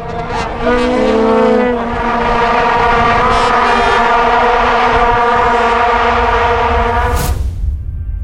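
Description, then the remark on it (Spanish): A dense, continuous drone of many vuvuzelas blaring together in a stadium at the 2010 FIFA World Cup in South Africa. It is loud and buzzing with layered horn tones, sustained for several seconds before cutting off abruptly near the end. “No olvidemos el ruido de las bubucelas. ¿Quién no se acuerda de esto?”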